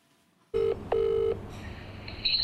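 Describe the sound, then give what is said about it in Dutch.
Two steady electronic phone ring tones sound in quick succession, loud, like an outgoing call ringing, followed by a brief high-pitched beep, as a phone call is placed to a young boy. No one speaks. “Maar vanmiddag kreeg dat jochie een telefoontje.”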